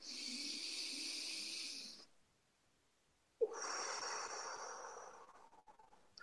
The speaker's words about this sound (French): Voilà, prenez une grande, grande respiration.